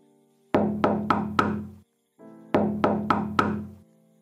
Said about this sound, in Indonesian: Waktu tengah malam tiba, di rumah salah satu warga tiba-tiba ada yang mengetok pintu